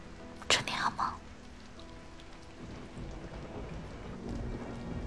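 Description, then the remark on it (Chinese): Steady rain pours down in a continuous hiss, with a short louder burst of splashing early on and a low, soft rumble of thunder underneath. No one speaks. “让我们听着下雨的声音，做个好觉吧。”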